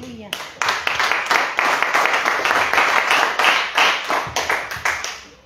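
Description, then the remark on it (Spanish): A crowd claps steadily together for Jesus Christ, dense overlapping hand claps at a fairly loud level, with no voices standing out over the applause. “Hay alguien que le pueda palmas a Jesucristo.”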